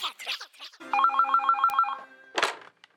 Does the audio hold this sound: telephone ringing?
yes